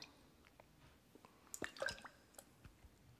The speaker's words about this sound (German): Oder ein Vogel oder Wassertropfen.